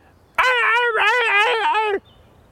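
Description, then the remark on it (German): A person imitates a fox's call: a loud, harsh, wavering cry lasting about a second and a half, with a brief break partway through, otherwise quiet. “Und haben Sie schon mal einen Fuchs reden hören?”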